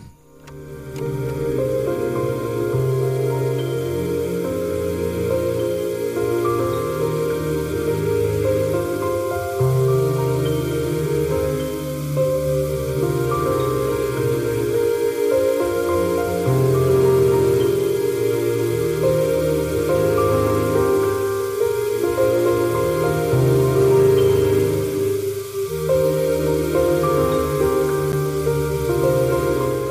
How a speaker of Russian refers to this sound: Слушай, очень красивая камерная музыка. И буквально, знаешь, такое ощущение, что здесь вот как будто бы есть два главных элемента. Это вот эта какая-то неоклассика, да, фортепиано, и шум такой. Шум, да, шум.